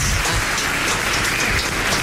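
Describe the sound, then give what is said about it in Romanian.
Dense, steady applause from an audience, a continuous wash of many hands clapping at once, fairly loud, with no voices over it. “foarte mult încă o dată, aplauze”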